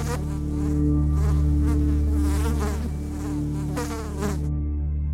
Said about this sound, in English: Mom scanned the pile of beans from behind her thick glasses, shooing away the flies that had infested our kitchen.